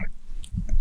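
Close, wet chewing sounds with a couple of crunchy bites, like someone munching on candy right by the microphone, in a short burst with no talking.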